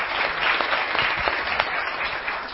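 A round of applause, many hands clapping in a dense, steady wash of sharp claps that holds at an even, fairly loud level throughout.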